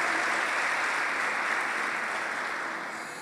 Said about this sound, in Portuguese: Pode aplaudir o Senhor. Amém.